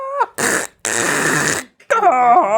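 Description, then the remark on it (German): A voice imitates a child's shrill scream, with a high wavering cry, then harsh, crackling distorted bursts like an overloaded microphone, and another rising squeal at the end, loud. “Das Kind schreit so laut, dass einfach das, das Mikrofon tiltet.”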